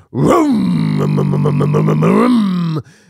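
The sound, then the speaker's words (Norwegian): A voice imitates the revving engine of an older diesel car, standing still with the gas pressed to the floor: a loud, sustained low buzzing drone that rises in pitch, holds steady with a rhythmic throbbing pulse, then cuts off after almost three seconds. “den duringa når du ruser motoren gjennom rattet og gjennom setet.”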